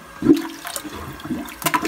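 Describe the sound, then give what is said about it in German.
A plunger is pushed into a clogged toilet that no longer drains and moved back and forth, pumping water in three quick gurgling sloshes at an uneven rhythm, with no talking. “Jetzt ist es wichtig, dass ihr den Pümpel ins Loch reinschiebt und dann”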